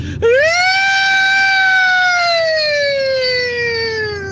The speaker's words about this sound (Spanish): Yo oigo una sirena. Sí. A mí, a mí llamarme observador, pero yo oigo una sirena.